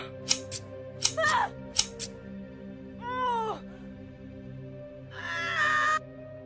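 Long scissors snip through a woman's long hair in three quick pairs of crisp, sharp cuts, followed by a muffled, wavering vocal sound and a longer strained cry, all over a steady low hum.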